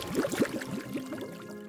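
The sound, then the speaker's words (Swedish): Water of a lake near Inverness bubbling and gurgling in a quick run of rising bloops, busiest at the start and then thinning out into softer, scattered bubbles. No voices. “Och helt plötsligt så börjar det bubbla.”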